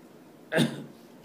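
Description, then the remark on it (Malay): A single short, fairly loud cough, bursting out abruptly and fading within a fraction of a second, with no talking around it. “Kita maaf, saya batuk sebenarnya.”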